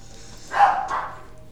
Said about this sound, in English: Today we're listening to dogs barking. It's pretty cool.